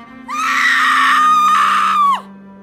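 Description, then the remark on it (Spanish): A woman lets out one long, loud, high-pitched scream of pain and panic, sustained for nearly two seconds before cutting off abruptly, with a low steady hum underneath. “Resuenan en mi cabeza esos gritos de dolor.”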